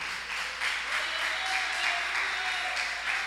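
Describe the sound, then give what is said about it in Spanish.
A church audience applauding the king together, a steady wash of many hands clapping at once, sustained and fairly loud throughout, with no one speaking. “Denle un aplauso al rey, denle un aplauso al rey.”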